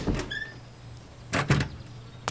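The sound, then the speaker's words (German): The door to the old laundry room opens with a short high creak followed by a few solid clunks and knocks spread over a couple of seconds, with no one speaking. “Tür zur Waschküche. Die alte Waschküche.”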